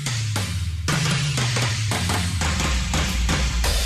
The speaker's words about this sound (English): I have a better drum kit for that. Hang on a second. Oh, this. I need something with a lot of reverb on it.